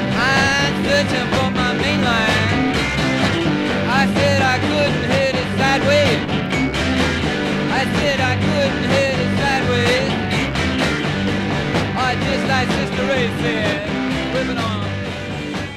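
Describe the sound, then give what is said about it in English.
A dense wall of distorted, overdriven electric keyboard tuned down as low as it goes and guitar with amp feedback, from a 1968 rock recording with every amp and instrument overdriven, loud and continuous, churning steadily with thick buzzing harmonics and no voices. “creating distortion and feedback the old fashioned way, overdriving every amp and every instrument they had.”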